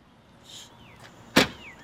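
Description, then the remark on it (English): Outdoors in the morning, a single sharp thump like a car door or trunk slamming shut as people pack a car stands out over quiet ambience, with faint chirping in the background and no one speaking. “We meet them outside while they're packing the car.”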